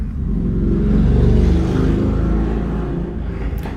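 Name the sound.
motorcycle passing by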